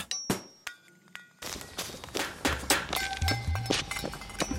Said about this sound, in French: T'entends ça? Quoi? On dirait des, des coups de marteau sur des boîtes de conserve.